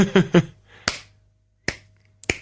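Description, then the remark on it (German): Several sharp hand claps land at uneven intervals, ending with a quick double clap. Each is a crisp, bright crack. Short voiced bursts, like laughter, come just before the first clap. “Ich klatsch, wenn ich also, will.”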